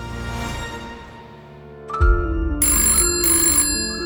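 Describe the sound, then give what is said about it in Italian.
A telephone rings on an outgoing call to The North Face headquarters in Aspen, an electronic ringback tone repeating in short bursts over a low musical bed, clear with no one speaking. “Esasperato dai troppi cambiamenti al vertice del colosso americano, alza la cornetta e chiama Aspen, quartier generale del North Face.”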